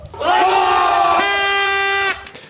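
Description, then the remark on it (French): A loud, sustained battle-cry shout of a crowd in revolt, evoking the Caracazo mass protests in Caracas, Venezuela, held for about two seconds at a steady pitch that steps up halfway through before abruptly cutting off. “Bon, ben révolte”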